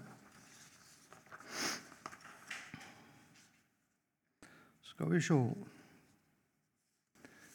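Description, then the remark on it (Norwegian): Crisp rustling and shuffling of a speaker's papers being put in order for a few seconds, with soft scraping and handling noises, followed by a brief pause and a man speaking a few words. “Må jeg bare få litt orden på papirene mine her.”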